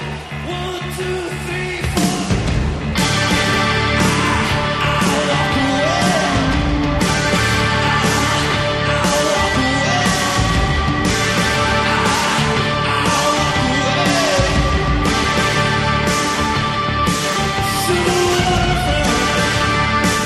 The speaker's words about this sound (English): And by the sound of the music, we've obviously changed the tone of the podcast.